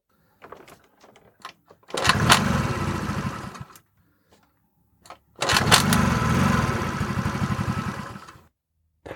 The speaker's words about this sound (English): Have you ever gone out to start your carbureted motorcycle, moped, or scooter on a pretty cold morning and all you hear is something like this?